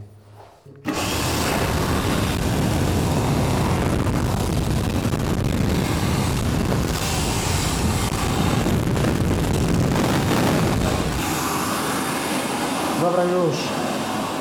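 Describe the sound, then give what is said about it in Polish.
An electric hand dryer kicks on abruptly after a moment of quiet and blows with a loud, steady roar for over ten seconds, its tone shifting slightly near the end. “Tak to tylko włączałem suszarkę do suszenia rąk.”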